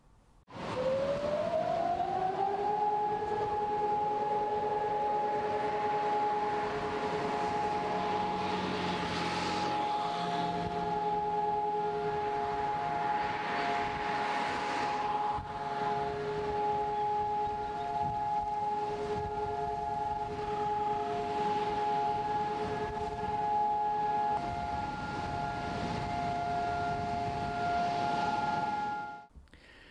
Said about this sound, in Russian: А в 10 утра в этот день во всем Израиле в память о погибших звучит сирена. На 3 минуты останавливается вся жизнь, водители выходят из автомобилей, и это вот такая национальная минута молчания.